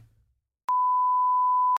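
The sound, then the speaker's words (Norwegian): A single steady, high-pitched censor bleep covering a spoken name, lasting about a second, switching on and off abruptly with small clicks, loud and clean after a brief low murmur at the start. “Kan du si hvem det var, så piper vi det”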